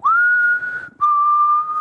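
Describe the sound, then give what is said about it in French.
A person whistles Negan's whistle from The Walking Dead: two long, steady notes, the second slightly lower, with a brief gap between them. The whistling is clear and loud, with no talking. “je fais un petit sifflet de, Negan, vite fait.”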